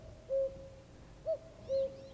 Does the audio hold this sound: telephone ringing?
no